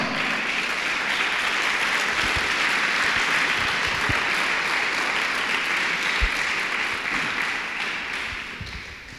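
An audience applauds steadily, a dense wash of many hands clapping at full strength for several seconds before tapering off slightly toward the end.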